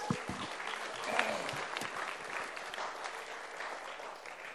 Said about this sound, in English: Why don't you give Lily another clap?